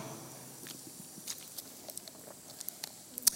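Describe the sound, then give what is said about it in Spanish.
A speaker pauses during a Bible sermon to quietly sip water: a run of soft, scattered clicks and small wet mouth and swallowing noises, irregular and faint, with no talking. “Déjenme darle un trago aquí a esta agua.”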